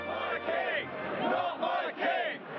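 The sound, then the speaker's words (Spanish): A large crowd shouts and cheers at the coronation of King Charles III on Saturday 6 May 2023, in rising, overlapping waves, a dense roar of many voices swelling loud and dipping briefly before surging again. “Y como en toda fiesta, hubo festejos, campanas, gritos y”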